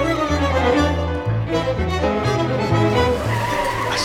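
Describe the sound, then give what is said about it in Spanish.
A car engine roars loudly as it accelerates, its pitch stepping up and down through several gear changes over a few seconds, with no voices. “aceleró insegura.”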